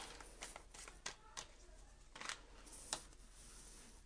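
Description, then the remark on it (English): Tarot cards being shuffled during a reading, a series of quick papery riffles and soft slaps at an uneven pace, with no talking over them. “We're going to shuffle some more. I'm using the uh, Radiant Wise Spirit Tarot.”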